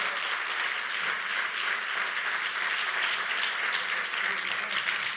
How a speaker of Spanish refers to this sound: Es más, eso merece un aplauso para el Señor, ¿verdad? ¡Uh! Gloria a Dios.